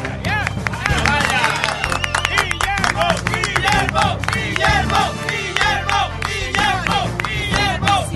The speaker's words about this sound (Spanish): Vamos, que desde cuándo se aplaude en un noticiero.